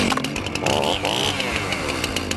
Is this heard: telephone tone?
no